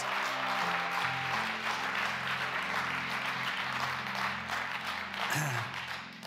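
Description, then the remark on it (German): A Hillsong church audience in Konstanz applauds steadily for all the church's locations, a dense, continuous wash of clapping for several seconds, with sustained low musical tones holding underneath throughout. “Können wir aus Konstanz mal einen riesen Applaus geben an all unsere Locations.”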